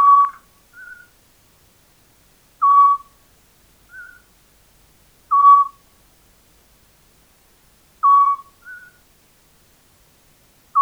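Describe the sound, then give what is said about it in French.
A scops owl, an owl no bigger than a blackbird, repeats short, clear whistled notes at steady intervals of a few seconds, each answered by a softer, slightly higher note, with quiet night stillness between calls. “le petit duc.”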